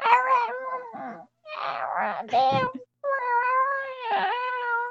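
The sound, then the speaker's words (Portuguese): Someone imitates a cat with three drawn-out, wavering meow-like cries, loud, separated by brief pauses, with no other talking. “Parece um gato.”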